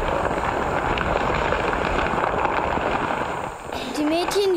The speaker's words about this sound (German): Immer wieder stemmten sich die vier Mädchen gegen den Stein. Und tatsächlich, nachdem sie mehr als eine Stunde gegraben hatten, rutschte der Stein von dem Loch weg und rollte polternd den Abhang hinunter.